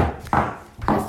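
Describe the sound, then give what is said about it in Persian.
Two hard clacks of a mother's adult shoes, worn by a small child, striking a floor about half a second apart, each sharp with a brief ringing tail, heard alone without any talking. “عزیزم مواظب باش را میری تق تق میکنی کفش تق تق تق”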